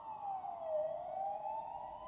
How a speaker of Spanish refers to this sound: Afuera solo se oían sirenas lejanas.